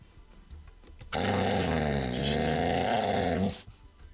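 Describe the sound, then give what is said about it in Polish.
A loud dog growl rumbles steadily for about two and a half seconds, starting abruptly and cutting off cleanly, with only faint background noise around it. “No i istotnie było słychać pieska.”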